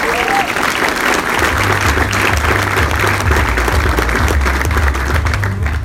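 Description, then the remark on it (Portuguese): Sustained audience applause, a dense crackle of many hands clapping at steady loudness for about six seconds, with a low hum underneath and no clear speech. “Uh, salve de palmas.”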